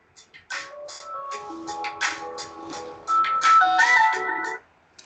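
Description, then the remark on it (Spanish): A phone ringtone plays a bright, tinkling melody of sustained electronic tones stepping up and down, growing louder partway through before cutting off abruptly after about four seconds. “perdona, que me han llamado al teléfono.”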